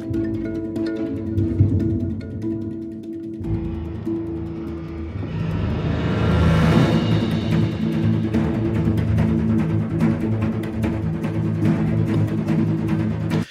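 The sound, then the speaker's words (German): A monochord, not a piano, heavily pitched and edited, plays a drone of layered, sustained tones that thickens and swells into a loud, bright crescendo midway, then holds as a dense, shimmering wall of sound with no voices. “das ist auch kein Piano gewesen, sondern es wurde Monochord.”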